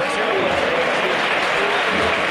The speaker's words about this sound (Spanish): escuchen el aplauso del numeroso público que también hay aquí en la calle Tetuán.